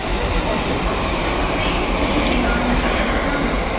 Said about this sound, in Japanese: でも上の東京ラインが走ってますね、うん、その上の東京ラインが走ってる中ちょっと収録してるわけではありますが